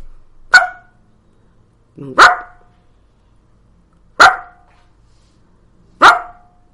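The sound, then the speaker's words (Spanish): A dog barks for attention four times at slow, steady intervals of about two seconds, each bark sharp and loud with a brief tail, separated by near silence; a bored, routine bark with no emotion attached. “A ver, esto es un ladrido por reclamo de atención.”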